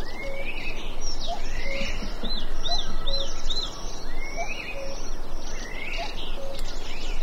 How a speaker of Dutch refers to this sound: Bij de koekoek is, bij de dat wel wel grappig, want er is zelfs al in het, ehm, in het Latijn al zo genoemd, de cuculus canorus. Wauw. Cuculus.